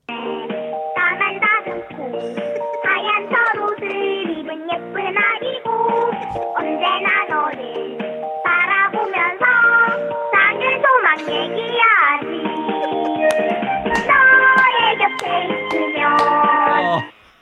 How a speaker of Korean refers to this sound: 여러분 컬러링이 너무 좋아서 한 번 더 듣고 한번 더 듣겠습니다. 다시 연결을 하고 있습니다. 야구 선수의 컬러링의 동요는